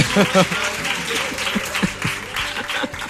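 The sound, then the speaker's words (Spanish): An audience applauds a child during a rehearsal, a steady, dense wash of many hands clapping at a moderate level, with a few voices faintly audible under the clapping. “Un aplauso para niño.”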